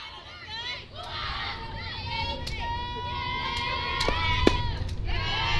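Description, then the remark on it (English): A sharp, loud pop of a baseball smacking into a catcher's mitt on a pitch called ball one outside, in the bottom of the first inning of a game, cuts through a steady murmur of crowd noise and shouting, with a few other quick snaps around it. “Whoo, you can hear that glove popping.”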